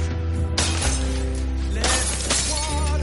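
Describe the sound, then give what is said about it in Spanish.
A bathroom mirror is smashed with several punches, its glass shattering in loud, sharp crashes, about three bursts of breaking glass spaced a second or so apart, over a steady low droning music bed. “Tras el recuerdo se encuentra en un baño contemplándose en un espejo. De repente lo rompe de varios puñetazos.”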